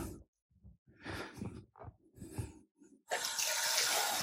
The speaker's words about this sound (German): Ich muss jetzt noch mal ein bisschen mit Wasser nachsteuern.